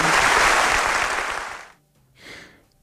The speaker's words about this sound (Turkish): Bu salonda bugün acısı meydanlarda yuhalatılmış bir anayı burada müsaadenizle alkışlatmak istiyorum. Berkin Elvan'ın annesini alkışlatmak istiyorum.